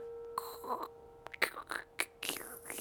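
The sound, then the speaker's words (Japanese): An old door creaks open in a series of drawn-out, squeaky groans and short scraping bursts, moderately quiet, with no one speaking. “なんかドアうるさいね。”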